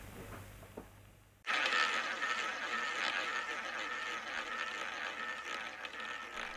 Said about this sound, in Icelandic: Nú heyrir við fína rúletu hljóðið og þá komið að næsta hljóðbroti.